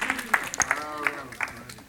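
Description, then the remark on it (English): An audience claps in praise to the Lord: a dense, steady patter of many hands, with a voice calling out faintly beneath the applause. “Give a Lord, give a Lord a hand clap of praise for that.”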